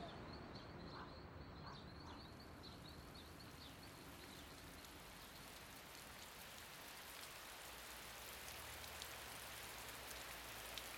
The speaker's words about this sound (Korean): 하늘이 금세 흐려지더니 추적추적 비가 내렸다. 색이 짙어지는 거리에서 흙냄새가 비를 타고 올라왔다. 태풍이 몰려오는 중이었다.